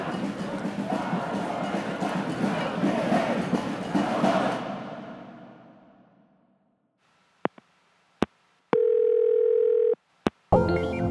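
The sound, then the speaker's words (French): A dense crowd of protest marchers roars and chants as the march begins, then gradually fades away over several seconds; afterward a few sharp clicks and a steady electronic tone follow in near silence. “Oh, la marche commence!”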